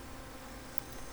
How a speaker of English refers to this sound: That's the cicadas. If you can hear in the background, we're in the hundreds for temperatures uh, up here in the desert, and the cicadas are